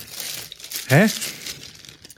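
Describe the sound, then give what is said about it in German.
Crinkling of a snack packaging bag, fairly loud, with irregular crackly rustles running throughout and a brief questioning vocal sound from a person partway through. “Das ist äh, die Verpackung.”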